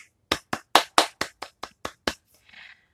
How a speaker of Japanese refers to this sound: はい。というわけで、ちょっと半ば無理やり自分に対して拍手を送ったところではありますが、そうなんですよ。